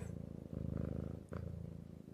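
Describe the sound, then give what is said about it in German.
A male cat purrs steadily, a low rumbling buzz pulsing in even cycles with a brief catch of breath midway, no talking over it. “Kater. Ich höre schon, ich höre schon, ja.”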